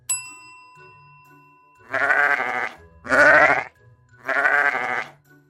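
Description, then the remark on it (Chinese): A bright chime rings and fades, then a sheep bleats three times in a row: loud, wavering, nasal cries, each about a second long with brief pauses between. “这个动物你有看过吗？是绵羊。”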